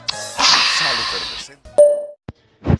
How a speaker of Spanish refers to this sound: Prueba con disfrutar, liviano con disfrutar, refrescante, efervescente y suena así.